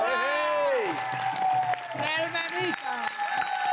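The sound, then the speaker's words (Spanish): An audience claps steadily for several seconds while voices call and cheer over the top, the cheering rising and falling in pitch throughout, applauding as a guest is introduced on a program. “Un aplauso, por favor.”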